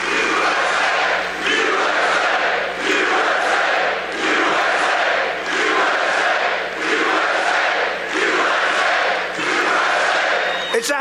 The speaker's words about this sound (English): And of course, they're cheering. They're out there.